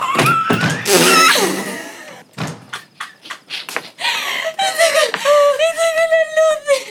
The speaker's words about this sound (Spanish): Sale y cierra la puerta.